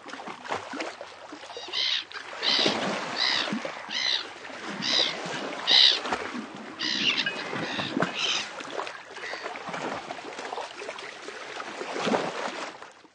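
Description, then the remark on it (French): Turbulent water churns and surges steadily as a whirlpool in the ocean makes huge waves that rock a ship, with repeated creaks and splashes rising and falling throughout, fairly loud. “Le bateau tanguait car le tourbillon faisait d'énormes vagues.”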